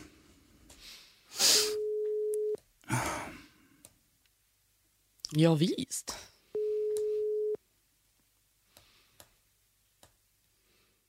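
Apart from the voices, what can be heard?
telephone ringing tone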